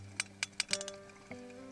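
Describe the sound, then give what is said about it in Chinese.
Sperm whale clicks: about six sharp, crisp clicks in an uneven burst, speeding up toward the end, over a low steady hum with faint tonal drones and no voices. “让我们来听听抹香鲸的声音吧。”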